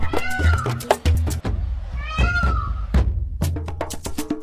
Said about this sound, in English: I hear a peacock yelping in my ear.